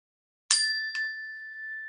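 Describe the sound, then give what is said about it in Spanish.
A small meditation bell is struck once during a guided breathing meditation, then tapped lightly again, its clear bright tone ringing on steadily and fading slowly in the quiet, with no voices. “oyes esa campanita, que es, va a representar esa atención que llevas a la respiración cada vez que te das cuenta que te fuiste.”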